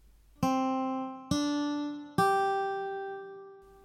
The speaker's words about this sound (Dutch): We hebben nu drie tonen. Van laag naar hoog.